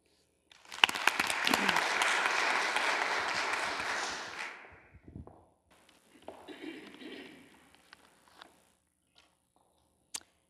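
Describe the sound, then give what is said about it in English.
An audience breaks into applause welcoming a speaker, a dense wash of many hands clapping for about four seconds before fading, followed by scattered lighter claps and faint crowd rustle. “Please join me in a warm welcome”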